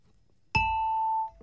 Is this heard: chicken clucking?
no